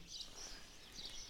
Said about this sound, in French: Et là, on est sur la place du village de Lupersa, les oiseaux gazouillent à fond